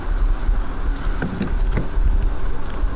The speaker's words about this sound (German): Da steht der Ionic 5. Ich öffne die Ladeklappe, Stecker rein.